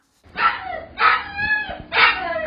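A small dog lets out three loud, drawn-out barks with short pauses between them and a faint low rumble underneath, while being groomed at an animal hospital.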